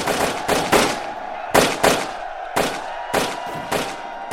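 Matchlock musket gunfire from Japanese troops shooting to break down wooden-plank shield walls around a fortress held by 20,000 Koreans: about ten sharp, loud shots in an uneven volley, each cracking and trailing off in a rumbling echo over a faint steady hum, with no voices.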